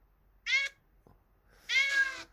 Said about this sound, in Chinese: 那个猫的叫声一出来，我就知道了